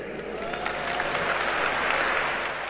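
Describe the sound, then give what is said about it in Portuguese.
An audience claps steadily for a few seconds in answer to a question about who has used a café toilet in the country, a dense, continuous patter of many hands with no voices on top, holding roughly even in loudness throughout. “Já agora, por aplauso, quem é que já foi à casa bem de um café neste país?”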